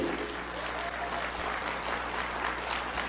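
Steady, sustained applause from an audience, a dense wash of many hands clapping at an even level throughout, with faint crowd murmur underneath.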